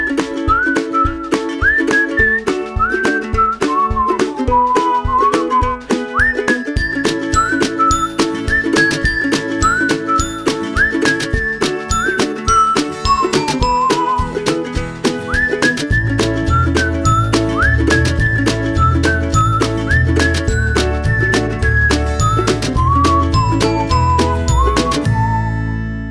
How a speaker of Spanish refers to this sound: Así que ahora lo que voy a hacer es poner el silbidito ese que suena muy bonito y arrancamos con este tipo.